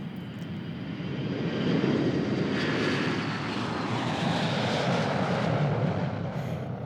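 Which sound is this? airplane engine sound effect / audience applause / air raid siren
airplane engine sound effect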